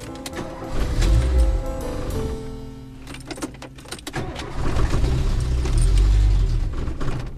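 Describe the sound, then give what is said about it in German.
The engine of a 30-year-old curry-coloured Renault R4 car with colourful trim stripes, in Regensburg, rumbles, dips to a quieter patch with some mechanical clicks and rattles, then revs up again into a steady, throaty running sound. No one speaks. “Der 71-jährige Kapuzinerpater fährt einen Renault R4.”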